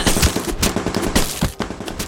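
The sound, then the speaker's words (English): Rapid bursts of gunfire sound effects crackle in quick succession, loud and dense, with sharp repeated shots layered like a chaotic shootout and no voices over them. “I'm gonna devolve this book report into an opening skit with a bunch of punching and gunfire sounds.”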